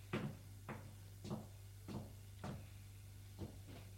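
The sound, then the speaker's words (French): A wooden wardrobe door repeatedly opening and shutting as belongings are put away, about seven sharp knocks and thuds spread evenly over a few seconds, over a steady low hum with no voices. “Et lui montre son armoire. Gilles fait comme les autres, range d'affaires.”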